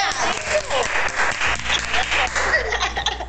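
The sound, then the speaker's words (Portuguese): A steady burst of applause from a small group, dense overlapping claps filling the whole stretch at a fairly loud level, with a few faint chuckles mixed in. “É Palmas pra mim, amiga!”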